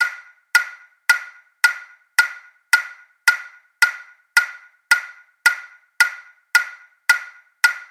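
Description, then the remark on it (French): A metronome ticks steadily at a tempo of 100 beats per minute, with crisp, identical mid-pitched clicks that each fade quickly. There is no talking or other sound. “Voici par exemple un tempo de 100 battements par minute.”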